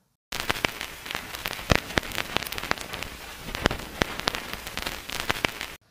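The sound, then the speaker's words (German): Steady vinyl record crackle: a dense hiss dotted with irregular sharp pops and clicks, a few louder snaps standing out, continuing evenly for several seconds with no voices. “Äh, Schallplattenspieler. Oh ja. Noch mehr weil mit wirklich. Mit Knistern dann auch dieses.”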